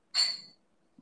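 A single glass clink from a Casamigos bottle, a bright ringing tap that fades away within half a second, fairly quiet and with no voices around it.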